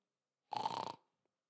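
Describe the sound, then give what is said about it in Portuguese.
A person imitates a soft snore with a single short, raspy inhale of about half a second, fairly quiet, followed by silence. “Algumas pessoas roncam baixo,”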